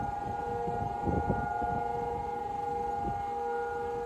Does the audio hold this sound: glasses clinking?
no